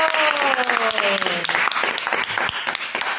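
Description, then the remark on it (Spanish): A crowd applauds with dense, steady clapping throughout, while a voice briefly rises over it with a falling cheer near the start. “¡Un aplauso! ¡Un aplauso!”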